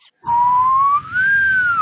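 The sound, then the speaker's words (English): A person whistles an imitation of the sound effect of a car hitting a jump in the Roger Moore movies, a loud steady tone that glides slowly upward in pitch with a brief dip midway, lasting under two seconds without speech. “They were it's, like when when he goes and he hits the jump with yeah. a car, and, and the car the sound goes, effects.”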